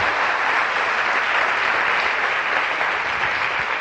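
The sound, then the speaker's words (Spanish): An audience claps steadily for a 13-year-old in the audience, a dense, even wash of applause with no pauses and no voices rising above it. “15, 13, un aplauso, coño, 13 años tú, qué grande, qué grande.”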